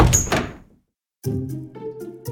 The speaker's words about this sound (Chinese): 歌修打开门，花猫旋风一般逃了出去。